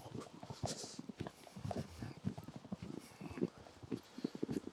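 Steady footsteps of a person out for a walk crunch through snow on a sidewalk completely buried in snow, each step a gritty squeak in an even walking rhythm, with no talking over them.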